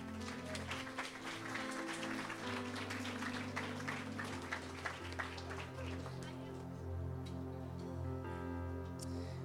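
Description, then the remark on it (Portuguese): An audience, standing up in their places, applauds Jesus, clapping steadily in a dense, sustained wash of applause, layered over a low, droning musical chord that continues beneath it; the clapping thins out toward the end. “Será que enquanto você levanta, você pode aplaudir Jesus?”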